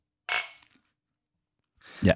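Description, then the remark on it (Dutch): Glasses of pils beer clink together in a quick toast, a bright ringing knock that fades fast, followed after a pause by a softer, lower bump of sound. “Proost. Proost.”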